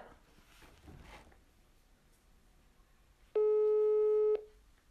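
A single loud, steady electronic telephone ringing tone of a call on speakerphone sounds for about a second, with a pure harmonic buzz, after some faint low background murmur and muffled voices.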